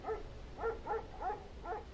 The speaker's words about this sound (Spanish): Hay quienes dicen que bajo el potente temporal podían oírse los ladridos de un perro.